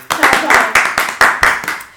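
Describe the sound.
Applause welcoming a guest, in a steady, rhythmic beat, about eight sharp claps in two seconds, fairly loud and bright, with a faint murmur of voices underneath.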